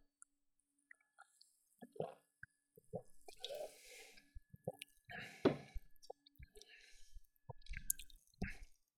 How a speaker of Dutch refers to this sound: Ik neem daar even een slokje op.